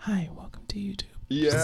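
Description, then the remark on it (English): A soft, breathy whispering voice imitates the delivery of ASMR YouTube videos, with hushed, airy words and crisp sibilant hisses between them. “my least favorite YouTube videos are those ASMR videos.”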